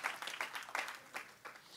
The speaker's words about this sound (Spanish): Den un aplauso fuerte a nuestro Dios Todopoderoso.